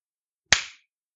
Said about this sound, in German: Jetzt klatscht es hier, Junge. Aber kein Beifall, das sag ich dir.